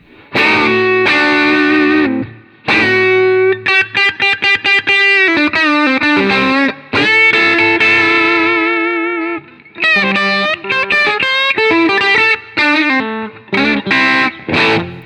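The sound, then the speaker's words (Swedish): Distorted electric guitar plays single-note lines with the amp's tone knob turned up to two o'clock, mixing sustained held tones with quick runs of picked notes, loud and saturated with a steady midrange bite and no talking over it. “Hur låter lite singelstring på det här då?”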